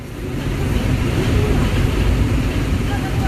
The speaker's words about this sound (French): soufflerie des climatiseurs dans les rues de Wuhan à la nuit tombée. Le long des lacs, c'est une ville de lacs, Wuhan.